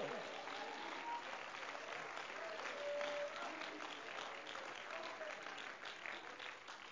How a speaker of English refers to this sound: Clap your hands and worship the Lord.